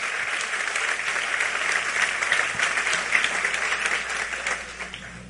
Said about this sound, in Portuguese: Pode aplaudir se é para o Senhor.